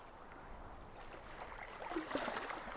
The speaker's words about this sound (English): The lapping waves wash over your ankles and feet receiving any residual disease, anxiety, struggle from the body, cleansing it all away with its salty remedy.